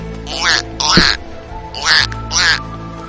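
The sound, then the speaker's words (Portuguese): A person imitates a duck with four raspy, nasal quacks in two pairs, loud, with brief pauses between them. “Eu desafio você a imitar o melhor pato que você conseguir. E não é pato assim não, ó.”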